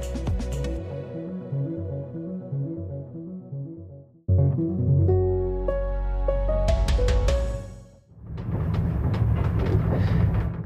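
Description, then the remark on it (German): A night train rattles along the tracks in Ukraine, travelling from Kyiv 500 kilometres east to Kharkiv: a steady rumbling clatter with rhythmic knocking and droning tones, heard from inside the carriage with no one talking. “Sie hören es vielleicht schon im Hintergrund, es rappelt mal wieder, ein neuer Tag in der Ukraine und wir sitzen mal wieder in einem neuen Nachtzug.”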